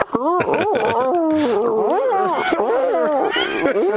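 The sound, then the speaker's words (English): A loud wolf howl, layered and wavering, with pitch sliding up and down in continuous yipping glides that fill about four seconds without a break. “Uh, this is the lone wolf.”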